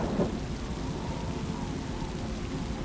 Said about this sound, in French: Lorsqu'il prononce ses premiers mots, la pluie s'abat sur l'abri.